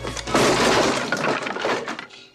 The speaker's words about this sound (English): And she smashes it against the wall above his head.